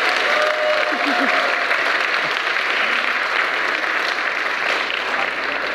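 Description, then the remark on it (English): Sustained, loud applause from a large church crowd giving God a round of applause, a dense steady wash of clapping with no gaps, lasting several seconds with a faint murmur of voices underneath. “Can we give God a round of applause, please?”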